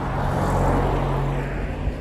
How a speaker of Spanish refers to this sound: A ver, me viene un coche y mira que me he ido a un caminacho de mierda.